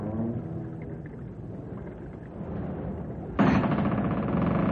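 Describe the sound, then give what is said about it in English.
A railway trestle groans under strain: a steady low rumbling creak that suddenly swells louder and harsher toward the end, with no voices. “Listen to that trestle.”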